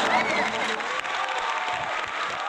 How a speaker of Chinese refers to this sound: 来，掌声欢迎。